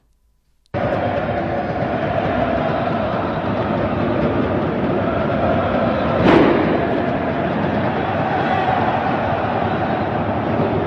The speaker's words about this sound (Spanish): El boletó és guapo, eh? Home, nosaltres no som d'assustar molts molts pels boletons, la veritat. D'este tipus de petardo el coneixem bé, però bueno, dins d'un camp de futbol, bromes a part